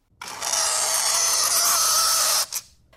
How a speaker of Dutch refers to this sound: als ik aan de microfoon krap... Daarvan krijg ik eigenlijk pijn, zo op mijn huid en aan mijn voortanden.